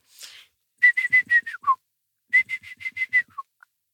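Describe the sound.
Someone whistles an imitation of a great tit call: two close, clear phrases of five or six quick, even notes, each ending in a lower slurred note, after a brief breathy sound.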